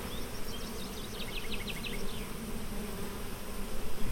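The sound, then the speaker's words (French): A gentle, non-aggressive honeybee hums steadily, its buzz swelling and fading as it circles around a person, over a low continuous drone with a few faint chirps high above. No one speaks. “Le son n'est pas le même quand elles sont agressives. Celle-là, par exemple, qui tourne autour de toi, elle est douce.”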